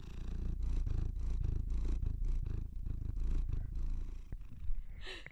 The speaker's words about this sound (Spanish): Ahora está ronroneando. Y ahora está ronroneando en el micrófono. Vamos a escuchar el ronroneo de Crispin.